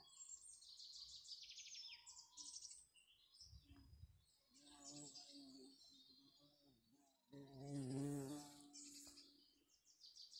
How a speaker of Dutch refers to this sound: Nou, je hoorde net nog niet mij gillen, want die bij die kwam heel dichtbij. Terwijl, ik ben helemaal niet bang voor bijen, maar goed.